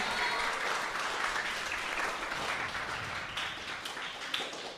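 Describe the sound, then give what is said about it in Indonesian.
An audience applauds steadily, a dense wash of many hands clapping at once that holds for several seconds before easing slightly toward the end. “Wow, tepuk tangan dong.”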